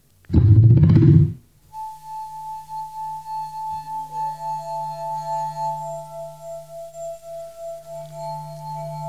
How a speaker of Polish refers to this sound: Kieliszek. Granie na kieliszku polega na pocieraniu wilgotnym opuszkiem palca o krawędź kieliszka z wodą bądź inną cieczą.